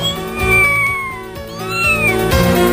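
A cat meows loudly in long, drawn-out, wavering cries that slide downward in pitch, two or three calls running together with no talking.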